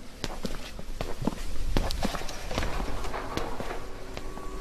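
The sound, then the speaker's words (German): Footsteps walk steadily out onto the Johannikirchplatz square in Billerbeck in sunshine, across a hard outdoor surface, each step a sharp click, with a soft open-air background hum and no one speaking. “So, jetzt gehen wir wieder hinaus auf den Johannikirchplatz.”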